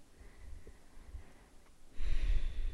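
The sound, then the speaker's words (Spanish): A deep breath: a faint, quiet draw of air, then a louder, airy rush of breath near the end, with no talking. “te des la posibilidad de observar a tu alrededor, tomar una respiración bien profunda”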